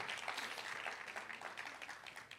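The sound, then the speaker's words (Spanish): A crowd gives a round of applause to the Lord, clapping steadily for a couple of seconds in a dense, even patter of many hands clapping at once, fairly soft and with no voices over it. “Alguien le da un aplauso al Señor por eso.”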